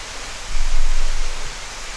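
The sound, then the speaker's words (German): Steady, dense rain hisses without a break, fairly loud, with a low rumble swelling briefly in the middle. No one speaks. “Also wieder ein schöner, regenreicher Tag.”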